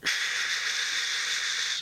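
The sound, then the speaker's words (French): A voice imitates white noise with a steady, continuous hiss pushed through the mouth, sustained evenly for about two seconds with no other sounds. “c'est un bruit blanc.”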